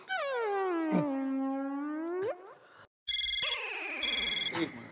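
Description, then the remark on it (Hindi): A loud phone ringtone chimes in with a bright electronic melody of steady, repeating tones, following a stretch of swooping, warbling sound and a brief pause; it is an incoming call from home. “phone वो घर से फोन है किसके तेरे मेरे मेरे घर पे कौन है जो तुझे फोन करेगा तो फिर मेरे घर से फोन आया होगा ना छोड़ी तुम फोन उठाओ बात खत्म करो ताकि खाना शुरू कर सके”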